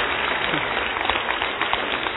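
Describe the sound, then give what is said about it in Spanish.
Audience applause: a steady, dense patter of many hands clapping at an even, moderate loudness for a couple of seconds, with a few sharper claps standing out. “Yo que usted le hubiera dado un aplauso.”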